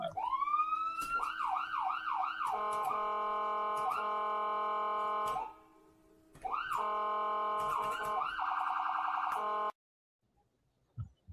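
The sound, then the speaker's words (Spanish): A loud ambulance siren sound effect introducing a Yankees injury report segment, clear, winds up into rising and falling wails, breaks off briefly, then returns with a quicker yelping pattern before cutting out abruptly. “Bueno, llegó la ambulancia, llegó la ambulancia con las bases llenas.”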